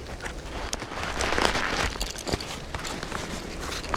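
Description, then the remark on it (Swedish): Footsteps crunch along outdoors at a steady walking pace, with uneven scuffs over a constant rustling background, as a person walks over to fetch a microphone that has been recording wind all night on a spruce tree. No one speaks. “Ja, jag går bort och hämtar mikrofonen som suttit och spelat in en massa vind hela natten.”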